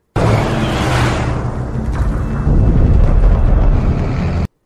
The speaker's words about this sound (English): It just sounds like thunder and cars driving off afterwards.